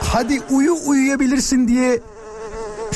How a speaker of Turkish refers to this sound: sivrisineğin sesinden nefret ederim demiş